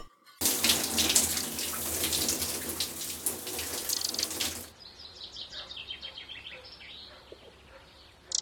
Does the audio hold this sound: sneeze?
no